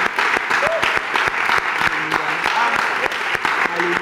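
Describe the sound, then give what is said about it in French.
A crowd at a Christian worship service claps and cheers loudly and continuously to acclaim the Lord, with dense applause and scattered voices shouting and whooping over it. “Acclamons très fort le Seigneur.”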